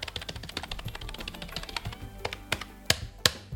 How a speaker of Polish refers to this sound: klawiaturę jakąś taką totalnie, jak to się mawia, no name, mm, za 20 czy 30 zł kupioną